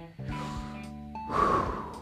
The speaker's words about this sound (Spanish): La clave para superar esa ansiedad empieza con el control de la respiración. Empezamos a respirar. Hagamos el ejercicio de una respiración profunda, ¿no? Una respiración profunda